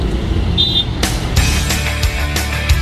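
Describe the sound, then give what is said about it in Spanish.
Busy city traffic in Lima roars steadily, with a low engine rumble, passing vehicles and a brief high horn-like tone early on, loud and continuous without any voices. “¿O harto del tráfico de Lima?”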